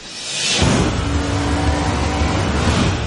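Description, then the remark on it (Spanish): A loud race car engine roars in with a rushing whoosh, then holds a steady, high-revving drone with a buzzing tone, continuous for a few seconds with no one speaking. “Sería como si un ciclista que va de paseo se enfrentase a un coche de carreras.”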